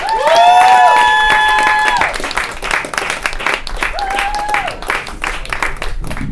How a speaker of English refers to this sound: She's so fucking funny. Give a round of applause for the very hilarious